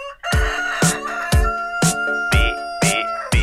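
A loud rooster crow holds a sustained, strained tone while sharp, rhythmic chicken clucks punctuate it about twice a second, with no talking.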